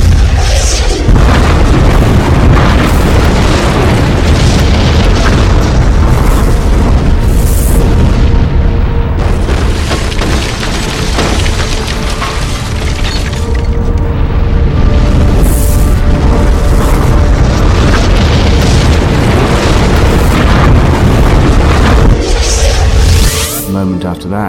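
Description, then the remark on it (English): A massive, roaring explosion from two objects slammed into one another rumbles on at full loudness for over twenty seconds, a dense, crackling wall of deep booms and debris noise that cuts off abruptly at the end. “As before, there was a brilliant explosion, and everything around us was torn to atoms.”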